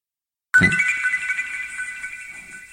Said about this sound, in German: Den Ton haben Sie gehört, damit hat es gesagt, so jetzt bin ich eingeschaltet.